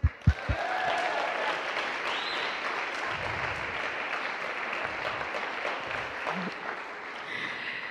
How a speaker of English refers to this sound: So can we just take a moment to give them a round of applause?